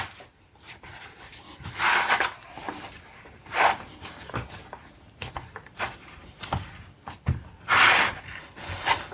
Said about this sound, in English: And then I just need to put it in the tin. Oh, sorry, that's very noisy.